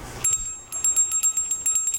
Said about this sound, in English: it's the Liberty Bell. See the crack? Solid brass. Come on, ring it.